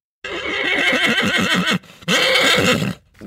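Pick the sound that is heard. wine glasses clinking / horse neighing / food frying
horse neighing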